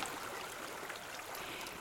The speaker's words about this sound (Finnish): Siirryimme vähän kauemmaksi syväpohjavettä pulppuavasta putkesta. Tämä putki olikin aivan ruskea. Se kuljetti mukanaan maan uumenista rautaa.